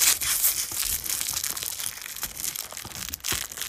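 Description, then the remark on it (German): A candy wrapper crinkles and rustles against a table, a steady stream of bright, crackling scratches with a few sharper snaps, heard alone without any talking. “Vielleicht konnte sie ein Bonbon nehmen und äh, es auf dem äh, ein Bonbonpapier und es dann gegen den Tisch äh, zu raschen.”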